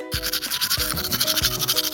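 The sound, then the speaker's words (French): Brisk scrubbing of a toothbrush against teeth, a steady rhythmic rasping with repeated short strokes, fairly loud and continuous for the whole two seconds, with no voices. “Tu frottes toujours”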